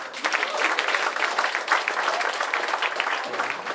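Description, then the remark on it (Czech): A stand-up comedy audience applauds steadily as comedian Jiří Karvát comes on, a dense wash of many hands clapping at even loudness for several seconds, with no voices rising above it. “Prosím, velký potlesk přichází Jiří Karvát.”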